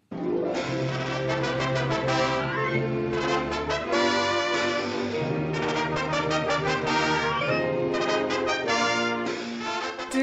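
A lively Cuban song plays steadily at full volume, with rhythmic plucked or strummed chords, a bass line and bright melodic lines, and no voices talking over it.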